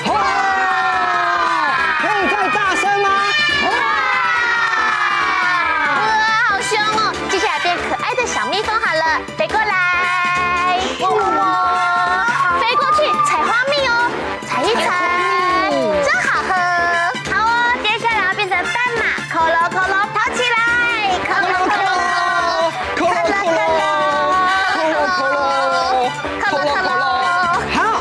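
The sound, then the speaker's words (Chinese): A group of children imitate fierce tigers in an animal-transformation game, their loud, overlapping growling shouts rising and falling in pitch and continuing without pause throughout. “好，现在来动物变变变，一起来变老虎，发出凶猛的声音。”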